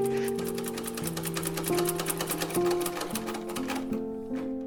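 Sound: sewing machine running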